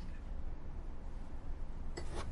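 A brief, bright clink of a drinking glass near the end as someone drinks water, over a steady low rumbling background with no one talking.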